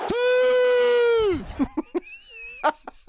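A loud shout of "Siii!", footballer Cristiano Ronaldo's celebratory goal cry, one long sustained cry held for over a second, then cut off and followed by a few short, scattered vocal bursts and clicks.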